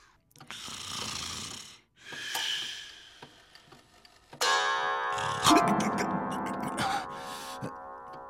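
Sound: snoring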